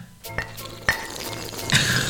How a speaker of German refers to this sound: Dann beenden wir das mit dem Anstoßen.